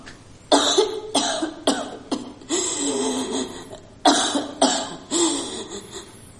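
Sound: coughing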